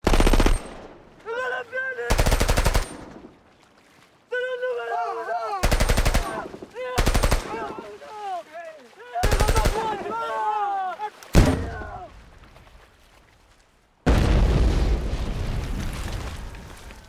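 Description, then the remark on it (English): Loud bursts of gunfire erupt repeatedly, some short and some in rapid automatic volleys, ending in a long sustained barrage, with excited voices shouting and talking between the shots; in Garrone's film of Roberto Saviano's book, two aspiring gangsters fire live rounds from a found arsenal down by a river. “They take the guns down to the river and, shooting off live rounds, marvel at the deafening racket.”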